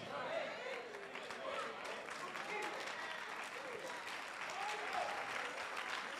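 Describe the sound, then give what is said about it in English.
An audience claps together in a dense, steady wash of applause that holds at an even loudness for several seconds, with faint voices mingling underneath. “Listen, listen, wait, put your clap.”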